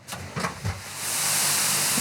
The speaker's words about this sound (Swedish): Då rör vi oss vidare här inne i kvarnen och då hör man att det brusar lite grann. Och här är uppe i själva kvarnrummet då, där vi eh, mal och processar spannmålen. Och det som vi hör nu är att vi blåser över spannmål från silon in i kvarnen.